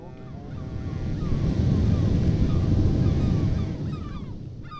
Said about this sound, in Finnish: Mutta sitten meillä on jotain aivan ainutlaatuista maailmassa. Ne ovat jättikokoiset aallot. Aallot muodostuvat tietyn lahden edustalla Nazareen rannikolla – merenalaisen kanjonin vuoksi.